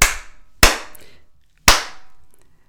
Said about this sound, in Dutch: Elke ruimte heeft een soort eh, ideale galmtijd. En die ideale galmtijd is, een soort basisgalm, is 0,7 seconden. En op het moment dat je in een ruimte staat en je gaat in je handen klappen